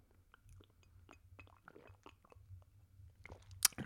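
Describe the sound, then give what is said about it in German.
Quiet wet mouth sounds and small clicks of someone sipping beer from a can, with soft slurps and a sharper metallic tick near the end; no one speaks. “Ein, ein Tropfen Getränk ist zwischen Mund, Zunge und Büchse herausgekommen und praktisch auf meinen Bauch.”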